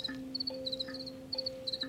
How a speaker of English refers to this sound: When it's warmer, the crickets chirp much faster, basically. There's like an old farmer's trick, even where you can more or less accurately like calculate the temperature by using the pause between chirps.